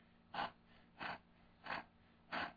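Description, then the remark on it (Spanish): Four quick, deep breaths drawn in at an even pace, each a short airy rush about half a second apart, clear with no talking. A woman lying on her back, eyes closed and mouth half open, breathes rapidly into her chest during a breathing exercise. “Eso es ella está respirando cuatro o cinco veces más rápido jalando aire aquí al tórax.”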